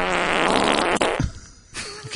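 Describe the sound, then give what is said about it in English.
A loud, buzzy fart sound effect from a Tesla car blares for about a second with a rattling, flappy texture, followed by a brief pause and a shorter sputtering tail. “That's, that's the whole reason I wanted to get a Tesla was to, to, so I could make it fart.”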